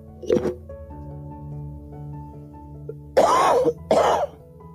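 A dry throat clearing opens, followed after a pause by two loud, harsh coughs in quick succession, with a low steady hum underneath and no talking.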